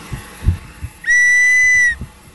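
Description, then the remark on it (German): A single sharp whistle blast, steady and piercing, held for just under a second, loud, preceded by a few soft low thumps. “Das ist halt die Pfeife. Wenn, das gar nicht, das pfeift. Nee, das pfeift nur, ja.”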